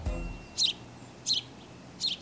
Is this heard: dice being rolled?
no